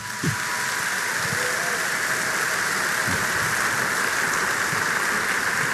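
An audience claps for the Lord together in a steady, dense wash of applause that holds an even loudness for several seconds, with no voices rising above it.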